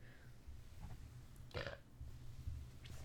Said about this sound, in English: Excuse me, I had to burp.